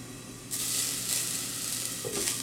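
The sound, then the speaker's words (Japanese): Fried eggs steam-cook in a normal large frying pan, covered with a lid after water was added: a dense, continuous crackling hiss that swells suddenly and holds loud, with faint clinks in the background. “はいあいい音ですねで水を入れたらフライパンの蓋をしてください蒸し焼きにしていきます割とねやっぱ目玉焼きって早くできますよね”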